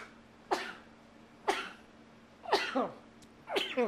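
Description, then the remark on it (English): Four harsh coughs from a man come about a second apart, fairly loud, with the last two sounding longer and rougher. No one speaks between them. “Bless you, sir.”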